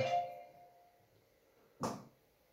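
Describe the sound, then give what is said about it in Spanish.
A computer alarm chimes with a bright, ringing electronic tone that fades over about a second, followed shortly by a second, louder chime. No one speaks. “Perdón, acaba de sonar el, el ordenador. La alarma, la alarma.”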